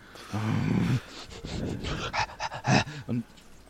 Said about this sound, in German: Er ist, er ist richtig engagiert dabei und bellt auch so ein bisschen und knurrt vor sich hin, so.